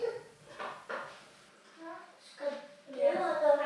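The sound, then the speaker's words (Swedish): Children's voices chatter indistinctly, muffled, with a few high-pitched bursts rising near the end amid faint household clatter, at 21:15 on a Friday evening. “Ska vi diskutera varför hans barn är vakna vid den här tiden på kvällen?”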